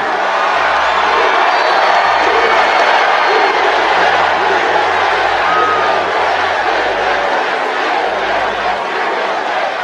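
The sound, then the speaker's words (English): A large rally crowd in Gastonia cheers in a loud, continuous roar, with scattered whoops and shouts rising out of the dense wash of voices for the whole stretch. “This is one hell of a big crowd.”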